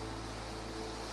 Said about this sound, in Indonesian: itu suara hujan ya itu, iya, iya. apa itu suara hujan ini etan ya hujan ya